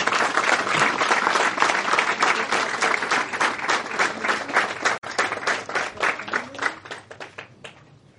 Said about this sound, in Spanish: Vamos a darle un fuerte aplauso a los niños.